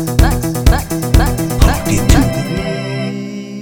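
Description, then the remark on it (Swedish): A brief, bright musical jingle with punchy rhythmic beats and layered tonal melody, ending on a sustained ringing chord that fades out. No voices. “de får ju varsin jingel nu för tiden.”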